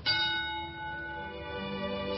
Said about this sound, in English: Don't steal any lines, don't step on laughs, and when you hear the bell, come out acting.